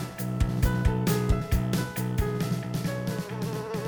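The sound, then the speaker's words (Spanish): Several screwworm flies buzz steadily, a dense, droning hum that wavers in pitch with brief louder pulses as they move around; no voices are heard. “Estas moscas, aunque suenen inofensivas, causaron millonarias pérdidas en el sector ganadero de Centro y Norteamérica a finales del siglo XX, al colocar sus huevecillos en las heridas de los animales de sangre caliente.”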